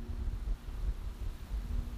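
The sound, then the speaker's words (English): Wind buffets a microphone outdoors in breezy winter air, a low, fluttering rumble that swells and dips in soft gusts for the whole stretch, with no voices. “Again, pretty windy out here.”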